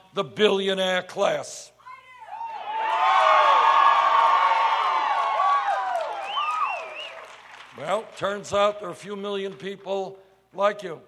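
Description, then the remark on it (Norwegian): A rally crowd packed into an indoor shopping street in Mason City bursts into loud applause and cheering, with whoops rising over the clapping for several seconds, between stretches of Bernie Sanders speaking before and after. “applaus.”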